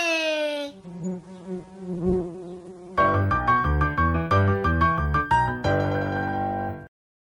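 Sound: bee buzzing in flight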